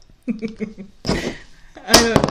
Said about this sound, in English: that's that's the sound of that thing dropping into the table.